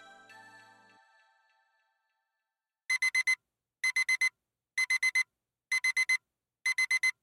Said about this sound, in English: Let me take you through a Sunday morning. Your phone alarm wakes you up at the optimal time of morning based on your REM sleep cycles